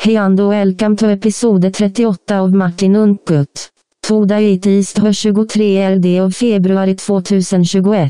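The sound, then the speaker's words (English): A computer text-to-speech voice from a Mac reads a short announcement in a flat, evenly paced monotone, clear, with one brief pause partway through. “And the only thing or way I can think about that being done is through text to speak.”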